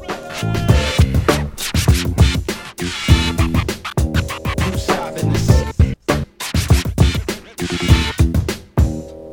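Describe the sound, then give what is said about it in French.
A DJ scratches a vinyl record on a turntable, cutting rhythmically over a loud, dense music backing, with quick back-and-forth swipes and brief stutters and breaks, prominent throughout. “Le scratch est devenu si important pour les DJ que même les nouvelles platines digitales sur ordinateur permettent de reproduire ce son analogique”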